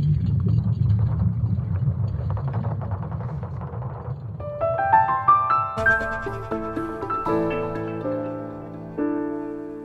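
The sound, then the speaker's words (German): A deep, churning rumble with a crackling texture, a sonification of Earth's constantly moving magnetic field and its liquid iron core, fills the first few seconds, then gives way to layered, sustained electronic tones that step upward in pitch and hold steadily, with no voices. “Und ja, wenn ich will, kann ich mir beim Hören des Tons einbilden, dass ich da dieses wallende Meer aus flüssigem Eisen höre, tief drin in der Erde.”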